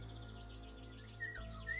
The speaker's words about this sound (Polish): I z nich najbładniej brzmi wilga. Piękny, żółty, wyglądający jak z bajki ptak, który w Polsce pojawia się w okresie letnim, właśnie stał na gałęzi pobliskiego drzewa i wpatrywał się we mnie.